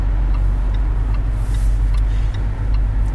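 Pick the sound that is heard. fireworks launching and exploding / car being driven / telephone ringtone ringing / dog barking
car being driven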